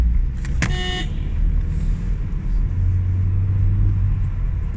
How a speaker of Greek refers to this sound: Τώρα κόρναρα εγώ, άλλο ό,τι να είναι, περνάνε τα κόκκινα ε, Στρίβουν όπως να είναι χωρίς φλάφ.